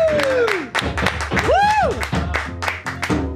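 Audience applause for a visiting singer at midday, a steady patter of many hands clapping throughout, with a few rising and falling vocal whoops or cheers cutting through the clapping.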